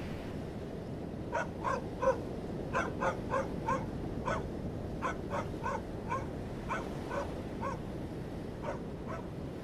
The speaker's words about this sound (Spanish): La soledad es una larga cadena de ladridos de perros que da vueltas en silencio por la noche del mundo hasta tocarte la espalda.